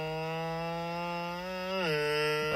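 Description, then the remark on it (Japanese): A cat purrs loudly and continuously with a buzzing, engine-like drone that sounds like an idling motorbike, steady in pitch before briefly dipping lower near the end. No one speaks. “完全に猫バイクになってましたよね。”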